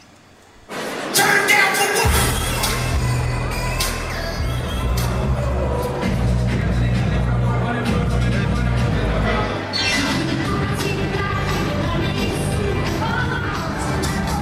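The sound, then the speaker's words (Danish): A large crowd roars and cheers continuously over loud, pounding music with a heavy bass beat at a political rally in France for Marine Le Pen, before her arrival with a light show; the noise swells in abruptly after a quiet start and stays dense and energetic throughout. “Men øh, stemningen derude blev altså pumpet nærmest til bristepunktet allerede fra, øh, fra start af, før hun ankom med lysshow og musik fra lidt forskellige skuffer.”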